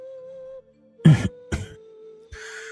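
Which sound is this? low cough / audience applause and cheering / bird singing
low cough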